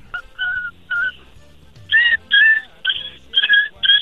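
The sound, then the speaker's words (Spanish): A person imitates a puppy's yelps: about eight short, high, whiny cries in a quick irregular series, growing louder and sharper toward the end, with no speech in between. “¿puedes hacerle como un, un perrito?”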